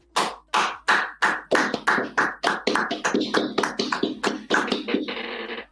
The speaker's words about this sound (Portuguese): primeiro lugar, queria pedir uma salva de palmas do futebol.